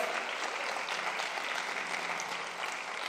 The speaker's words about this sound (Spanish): Vamos, si usted lo cree, denle un aplauso fuerte al Señor.